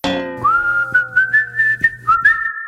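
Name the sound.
casual whistling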